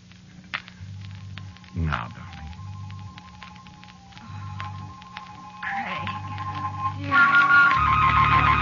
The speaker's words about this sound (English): Uh, wait a second, the phone's ringing. Uh, I'll be right with you.